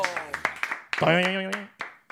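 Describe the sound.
A handful of sharp hand claps land in a loose, uneven rhythm while a voice sings over them, stretching into one long sustained note before the clapping resumes.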